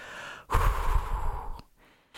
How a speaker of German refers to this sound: Rahab atmet ein und aus.